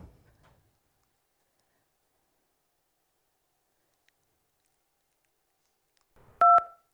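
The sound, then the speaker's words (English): Near-silence with a faint rustle at the start, then near the end a single loud telephone keypad dialing tone, short and steady, framed by soft clicks, as heard when calling a hotline. “So I just want to play a couple pieces of that right now, what you might hear when you call the hotline.”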